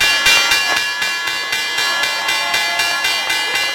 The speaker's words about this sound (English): And while it's not the same as it was decades ago, you can still feel the energy peak every morning at 9:30 sharp when the bell signals the opening of the markets.